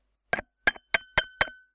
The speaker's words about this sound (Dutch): wat je hoort tikken, is een glas water.